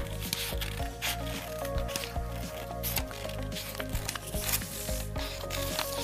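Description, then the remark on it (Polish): A sheet of paper being folded and creased to make a square, with repeated soft rustles and sharp scraping swipes over a steady low tonal hum in the background. “Żeby zrobić kwadrat, musimy zgiąć naszą kartkę w ten sposób.”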